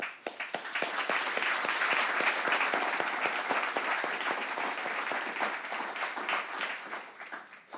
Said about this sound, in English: Um, I'm going to pray, but before we do that, can we just say thank you uh, with a round of applause to those?